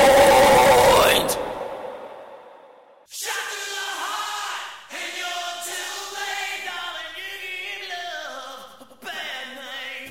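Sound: loud scream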